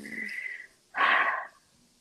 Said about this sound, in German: Ich muss einmal atmen, weil ich so doll an meinen Papa gedacht habe gerade.